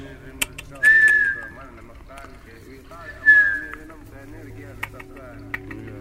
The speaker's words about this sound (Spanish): Los cohetes de fondo. Siempre el ruido luminoso de los cohetes.